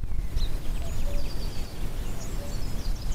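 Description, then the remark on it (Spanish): Outdoor woodland ambience in the morning in a large forest within the municipal limits of the city of Madrid, Spain, with scattered high, thin bird chirps and calls over a steady low rumble of wind. No one speaks. “Este lugar es un enorme bosque lleno de ciervos, de jabalíes, de águilas imperiales y de búhos.”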